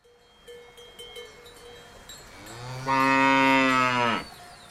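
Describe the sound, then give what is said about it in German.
A single loud, drawn-out cow moo rises and holds for over a second against a faint outdoor background with light clinking and hum beforehand. “Was haben Kühe mit Impfen zu tun?”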